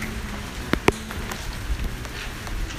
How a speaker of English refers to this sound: Rain doesn't want us to talk.